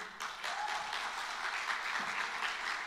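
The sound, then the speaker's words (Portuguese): A crowd applauds steadily, many hands clapping in a dense, even wash of sound that holds at a moderate level for a few seconds without any talking. “Aplaude a vida”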